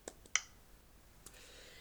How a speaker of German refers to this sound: Ja, ähm, einfach einmal auf den Bildschirm tippen und dann doppelt tippen.